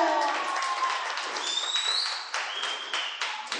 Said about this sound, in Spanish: Un aplauso para ella, aplauso.